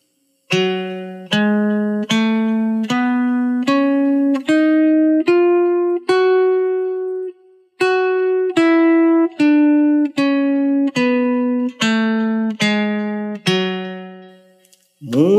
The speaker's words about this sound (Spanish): Muy bien, ahora es el turno de la escala menor melódica de Fa sostenido. Y es así, Fa sostenido, Sol sostenido, La, Si, Do sostenido, Re sostenido, Mi sostenido y Fa sostenido. Y suena así.